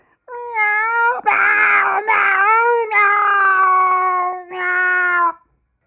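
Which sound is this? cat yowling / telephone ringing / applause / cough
cat yowling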